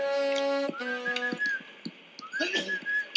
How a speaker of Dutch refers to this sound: Zit er nou iemand te fluiten?